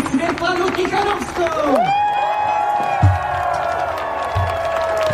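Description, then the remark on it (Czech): A large crowd on Old Town Square in Prague welcomes Sviatlana Tsikhanouskaya, cheering and shouting over five seconds, many voices overlapping in a loud, continuous roar with scattered clapping and whoops rising above it. “To krásne sa tam tlieskalo, pokrikovalo, Ľudia sa tešili, davy na staromestskom námestí vítajú Svetlanu Cichanovskú a ona si to užívá, nás tam usmievá.”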